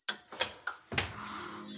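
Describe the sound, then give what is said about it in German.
The door of a time machine opens: a few sharp latch-like clicks and knocks, then a louder clunk as it swings open into a steady low hum and airy rush. No one speaks. “Dann mach doch mal die Tür auf”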